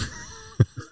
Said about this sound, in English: was that a fart? That was a fart. That was so loud. Yeah, that was. I felt it. It was.